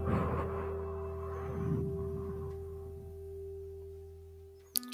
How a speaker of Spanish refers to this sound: Una vez que has tenido esta posición, voy a tocar la campana y comenzaremos a respirar.